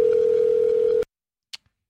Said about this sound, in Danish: Så vi prøver at ringe ham op på 9. november 2016.